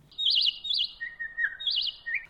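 A small bird sings a quick series of high, warbling chirps in several short bursts, clear, with no voices or other sounds around it.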